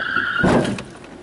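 A car's tires screech in a short, high skid, then a loud crunching impact as it hits a parked car, fading quickly afterward. No one speaks.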